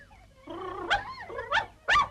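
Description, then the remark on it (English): A dog whines and whimpers in a rising, wavering tone, broken by three short, sharp barks, the last one loudest, with no one talking. “What a stupid dog you are!”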